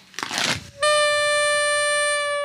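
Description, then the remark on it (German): A brief papery crinkle, then a party horn blown once in a steady, flat, buzzy tone that holds unchanged and fairly loud until the end, with no talking. “Meine war eine traurige, eine traurige Tröte.”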